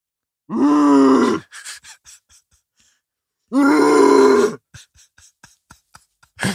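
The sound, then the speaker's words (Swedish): A voice imitates a child vomiting in a rear-facing child car seat: two loud, strained retching heaves about three seconds apart, each followed by scattered wet sputtering and spitting noises. “Som alltså drar ut, alltså då spyr han i sin barnstol, som då vänd eh, bakåt, rätt in i stolsryggen, sin egen stolsrygg.”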